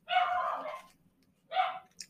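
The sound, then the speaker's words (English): Dogs bark twice in close succession, a long rough bark followed after a pause by a shorter one, fairly loud, with a faint low hum underneath. “Sorry about dogs. They're not going to stop.”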